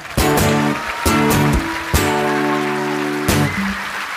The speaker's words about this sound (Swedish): en varm applåd!